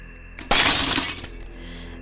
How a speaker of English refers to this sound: The most famous resident ghost resides in the basement. He's nicknamed the Joker but he's not as innocent as his name sounds. He touches people, leaving marks on them, and tends to throw dishes to the floor in the basement dining room.